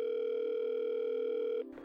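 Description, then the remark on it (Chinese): A telephone ringback tone on a late-night call placed at about a quarter to midnight: one steady, buzzy hum that holds for about a second and a half, then cuts off and is followed by a brief sharp click. No one speaks. “二妹显然被他这个时候的来电吓了一跳”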